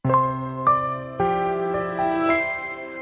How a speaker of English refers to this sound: That's the sound of the Verbum Library launching up.